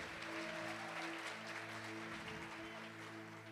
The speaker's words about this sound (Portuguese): Eu acho que esse aí, pode aplaudir o Senhor Jesus.